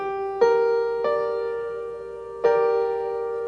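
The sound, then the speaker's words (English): A G minor chord is struck three times on a piano, twice close together and once after a pause, each one ringing out and slowly fading. It's clear, with no voices. “Minor, all you have to do is change the middle note and it sounds sad.”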